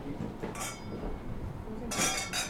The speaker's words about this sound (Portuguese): Vamos brindar aquele, é aqui.